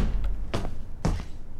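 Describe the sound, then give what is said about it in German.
A door opens at a Volkswagen board meeting as supervisory board chairman Hans-Dieter Pötsch bursts into the room: two distinct clunks of the latch and handle half a second apart, over a low steady rumble, with no voices. “Die Tür geht auf und Aufsichtsratschef Hans-Dieter Pötsch platzt in den Raum.”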